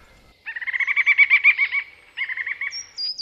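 A songbird sings in a forest, a rapid run of repeated buzzy notes, a brief pause, then a shorter second phrase ending in a thin, high whistle.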